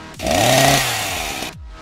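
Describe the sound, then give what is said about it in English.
A chainsaw snarls to life with a loud rev that climbs in pitch, holds a harsh buzzing roar for about a second, then cuts off abruptly, in a promo for a Texas Chainsaw Masquerade cabaret show. “You've heard of the Texas Chainsaw Massacre. Come to the Texas Chainsaw Masquerade.”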